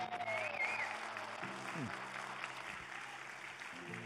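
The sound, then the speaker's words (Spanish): A crowd applauds steadily and loudly for a few seconds, a dense continuous clatter of clapping with a few voices calling out over it, giving a louder round of applause to God. “Oh, déle un aplauso más fuerte a Dios.”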